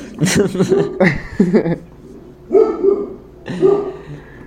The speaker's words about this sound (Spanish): A ver, aguanta, mis perros están ladrando.